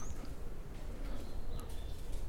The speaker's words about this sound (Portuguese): Aí o que aconteceu? pássaros, passarinhos.